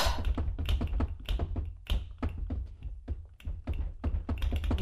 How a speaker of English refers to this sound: Why won't this drawer open? Ugh!